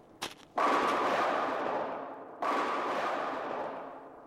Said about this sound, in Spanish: Rib oyó ruidos extraños, como de una tormenta lejana que salieran de una garganta estrecha, formada entre las rocas